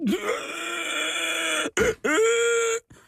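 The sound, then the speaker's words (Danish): A voice lets out a long, strained groan that rises and holds, breaks off briefly, then resumes as a sustained moaning tone before stopping, a vocal imitation of a sudden high fever setting in, as a symptom of pneumonic plague. “Det er lyden af høj feber, der pludselig sætter ind.”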